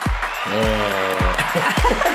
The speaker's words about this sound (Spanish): ¡Ay, los aplausos!